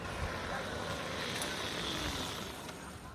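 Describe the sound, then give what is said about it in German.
An electric motorcycle's motor, on test in front of the Zeit press house in Hamburg's city centre, runs steadily with the microphone held close: a continuous, even hum-and-hiss with a faint high whine on top, holding at a moderate level and easing off slightly at the end. “Ein Elektromotorrad. Ich habe das Mikrofon dicht an den Motor gehalten.”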